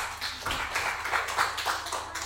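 An audience applauds steadily for a guest, one of the leading national animal experts, at a live show, many hands clapping together in a dense, crackling wash of claps that holds at an even, moderate loudness for a couple of seconds.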